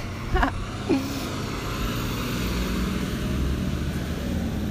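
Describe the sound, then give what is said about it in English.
A big garbage truck rumbles past, its heavy engine drone steady and loud throughout, with a couple of brief clanks near the start and no talking. “Um, here comes a big trash truck.”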